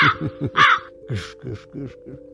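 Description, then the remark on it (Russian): A crow caws repeatedly in a quick, hoarse series of harsh calls, clear, with a faint steady hum running underneath. “в нашей стране люди совершенно ничего не боятся, даже когда на них каркают вороны.”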